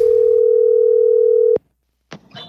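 A single steady ringing tone of an outgoing telephone call, placed to ask about an inspection of a new pool, hums loudly for about a second and a half, cuts off with a click, then brief silence before faint line noise of a pickup.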